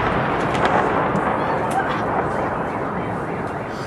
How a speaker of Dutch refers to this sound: Die vloog over de stad en belandde ergens, explodeerde in de stad zelf. En je ziet op beelden zie je mensen met machinegeweren die proberen om die drone uit de lucht te halen.